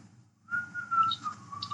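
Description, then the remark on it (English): A short, casual whistled tune starts after a brief silence, holding a fairly steady mid-high pitch with small dips and slides. It is moderately loud, with no talking. “move over, and he just kind of takes over and not even uh, almost humming.”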